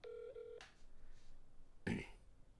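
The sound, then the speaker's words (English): A phone on speakerphone plays a short steady electronic tone with harmonics for about half a second as a call is placed, followed by a quiet pause and then a brief burst of noisy clatter. “Wait, I'm just I'm gonna call him right now.”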